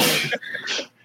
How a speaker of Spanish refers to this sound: yo creo que era la perra que estaba destornudando. Sí. ¿Verdad? Eso suena, como una persona.